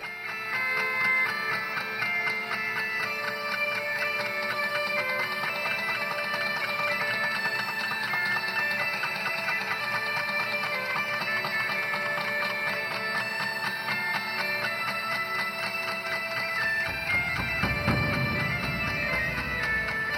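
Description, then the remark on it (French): Minimalist, trance-like instrumental music from a quartet of bagpipes and drums: dense, repetitive pulsing tones held at a steady level throughout, with a deeper low swell rising near the end. “Je vous propose tout de suite d'écouter un extrait de cet ornée musical.”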